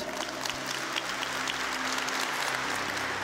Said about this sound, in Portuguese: Uma salva de palmas para ele, gente.